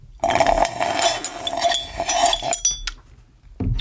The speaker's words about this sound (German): Aber vorher trinken wir noch ganz kurz unser Getränk hier aus. So. Ganz kurz auf ASMR-Basis.